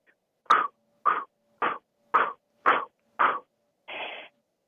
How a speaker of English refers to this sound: So we are going to do just 50 blow breaths out through your mouth. And it's only through your mouth. It's a intentional exhale. It sounds like this.